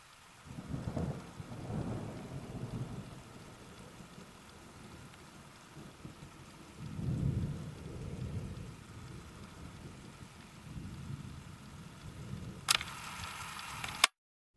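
Steady rain hisses throughout while low, rolling thunder rumbles several times, swelling and fading in the background, ending with a brief sharp burst of noise.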